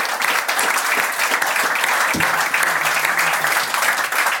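Sustained applause from a live audience, a dense steady patter of many hands clapping at once, fairly loud, with a brief low voice or tone briefly surfacing midway.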